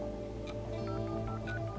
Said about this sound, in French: Subitement, il sort de sa torpeur, attrape son téléphone fixe et se met à pianoter.